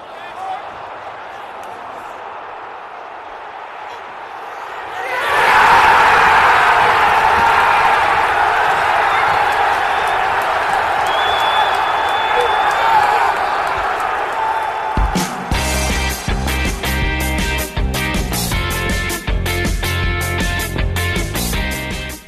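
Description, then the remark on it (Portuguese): A large crowd of Chelsea fans at a Chelsea–Middlesbrough match roars and chants 'stand up if you hate Tottenham' together in a stadium, loud and sustained, swelling after a quieter opening and continuing with rhythmic clapping and stamping beneath the voices. “Todo mundo, fica em pé se você detesta o Tottenham. Todo mundo fica em pé.”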